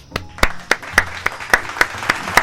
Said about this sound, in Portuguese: Então, merece salva de palmas.